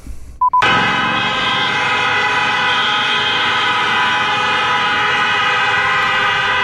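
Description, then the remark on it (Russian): Loud sirens blare across the city of Minsk in a steady, unbroken drone after a brief opening click, several overlapping tones sounding together across a wide space, with no voices. “Это вы слышите, друзья, как э, гудят сирены. Вот как гудят сирены, это реально, знаете, это гудит весь Минск.”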